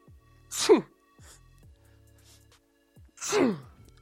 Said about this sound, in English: I can fake sneeze. Watch this